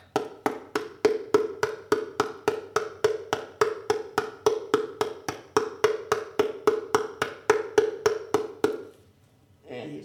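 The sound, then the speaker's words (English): A steady, fast series of hollow, papery taps on a drum made from a paper towel roll cardboard tube covered with washi tape and masking tape, about three per second, moderately loud, ending abruptly before a brief murmur. “This is a cardboard tube from paper towel roll. And I just covered this with washi tape and masking tape.”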